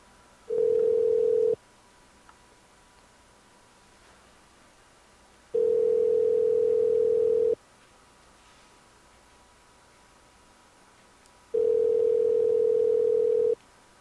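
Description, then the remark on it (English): A telephone ringback tone sounds over the line three times, each a steady hum lasting a second or two, separated by long silent gaps, and nobody picks up. “At least her cat could answer the phone.”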